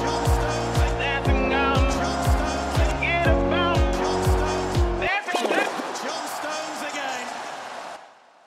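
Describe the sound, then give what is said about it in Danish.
A short, punchy music sting with a pulsing bass line runs for about five seconds, then cuts to a racing car roaring past with squealing tires before fading out. “så lad os, øh, lad os med den lille anekdote lige høre en fremragende skiller, og så går vi videre til kampene.”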